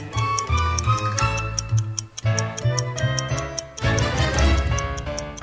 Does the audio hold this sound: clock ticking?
yes